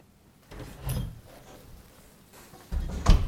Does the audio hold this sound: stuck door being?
yes